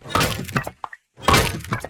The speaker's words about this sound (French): Écartez-vous, je vais détruire la porte avec ma hache.